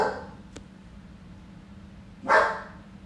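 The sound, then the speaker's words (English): A dog named Riley barks once, sharp, after a stretch of quiet room noise; the tail of an earlier bark fades out at the very start. No one speaks. “That's that's my dog.”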